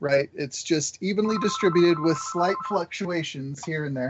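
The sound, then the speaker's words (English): A mobile phone rings with a steady, sustained electronic tone lasting over a second, fairly quiet beneath a person who keeps talking over it. “Sorry, that's my phone. Turn it off.”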